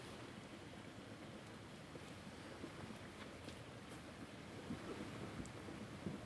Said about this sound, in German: Das Rauschen im Hintergrund ist der Bach des Zeltplatzes, also nicht wundern.